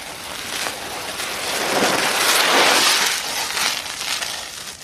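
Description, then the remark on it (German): A broad, hissing whoosh swells from a distance, peaks in the middle, and fades again, like a car's tyres speeding past; a foley imitation made by rubbing a glove on a cushion, with no voices. “Ein bisschen Dreck muss man da haben, also das Auto, was schnell vorbeikommt, äh, mache ich mit dem Handschuh hier, das kommt irgendwie aus der Ferne.”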